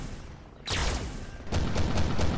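Heavy automatic gunfire erupts in a dense, rapid burst, followed by a second loud barrage of repeated sharp blasts over a rumbling background, close and intense.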